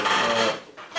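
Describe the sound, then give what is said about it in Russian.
A loud wooden creak drags for about half a second with a raspy, squeaky tone, goes quiet briefly, then starts again as a second short creak of furniture. “блин, как же она скрипит.”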